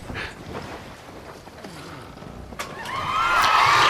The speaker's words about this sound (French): Il y a aussi beaucoup de bruit de vagues, je ne sais pas pourquoi il y a des vagues sur la Loire.